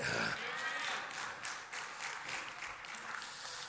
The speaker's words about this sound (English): You've never clapped in unison before, but thank you.